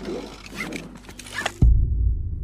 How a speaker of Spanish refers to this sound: El hombre vuelve a su auto. Se coloca el cinturón.